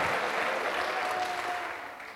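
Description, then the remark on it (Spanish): An audience applauds steadily, giving applause to Christ, dense clapping filling the whole stretch with a brief high tone or whistle sliding through the middle, then the applause begins to fade at the end. “Denle un aplauso a Cristo, amado hermano.”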